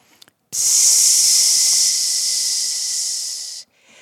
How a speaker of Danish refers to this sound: Og de af jer, der ikke har prøvet det før, I vælger bare at sige lyden PS, og så bruger I al jeres luft. Det lyder sådan her. Psss. Og når I så ikke har mere luft, så tager I lige en pause tager nogle gode indåndinger og tager en tur til.